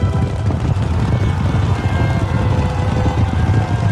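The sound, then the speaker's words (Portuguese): A dense, thundering rumble of many horses galloping together as an army's cavalry advances at the front into battle, hooves pounding in a steady, loud mass that continues without a break from start to finish. “o exército tá indo, vocês a cavalo, né? E ali a cavalaria na frente, vocês estão indo”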